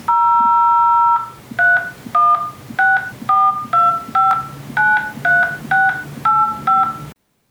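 A steady dial tone gives way to a quick series of about ten loud touch-tone beeps as a phone number is punched in, each tone short and evenly spaced, with a low hum underneath.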